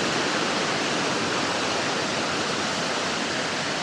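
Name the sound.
waterfall rushing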